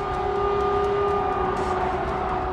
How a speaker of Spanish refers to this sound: Por aire las sirenas no paran de sonar como preludio de la lluvia de misiles.